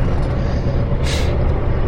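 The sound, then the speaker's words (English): Steady, loud low-pitched rumble of a truck engine heard from inside the cab while driving home to Albany, with a short hissing burst like an air brake partway through; no one speaks. “only reason why I'm doing this podcast right now in the truck headed home to Albany is because the inspiration hit me”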